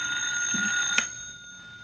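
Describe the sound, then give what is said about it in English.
A telephone bell rings at Shannon's place in a continuous, bright metallic trill, steady, with a short click partway through before the ringing carries on slightly softer. “That ringing noise is back in my skull. You're a ham bone. That's the telephone.”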